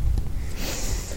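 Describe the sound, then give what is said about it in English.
A single sneeze: a brief, breathy burst of hissing air with a snorting, nasal quality, heard on its own without any talking. “Bless you.”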